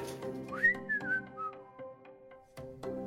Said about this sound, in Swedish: Och visslade när han inte hade ciggen i munnen. Han var duktig på det.